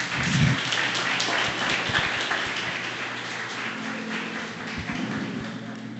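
A crowd applauds steadily for several seconds, a dense, even wash of clapping filling the room at moderate loudness with no voices standing out.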